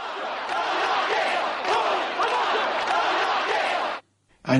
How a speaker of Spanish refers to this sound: El presidente de Italia y el jefe de la Policía Nacional deben su salvación al fiscal Giuseppe Ayala, que contenía a la multitud que gritaba que la mafia salga de esta iglesia.